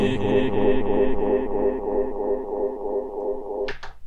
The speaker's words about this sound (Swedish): Eko.